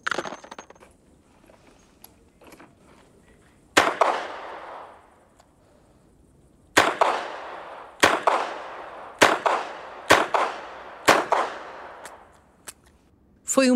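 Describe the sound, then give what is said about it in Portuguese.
Revolver shots crack out loudly, about eight in all, each one sharp with a short echoing tail, spaced irregularly a second or two apart after a quiet start with faint background murmur. “minuto e 47 segundos para dar 18 tiros.”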